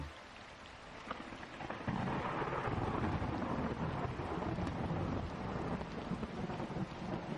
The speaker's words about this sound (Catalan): Comencen a caure les primeres gotes de pluja. Esporàdiques primer. I un llamp lluminós creua el cel. I darrere seu el so d'un tro.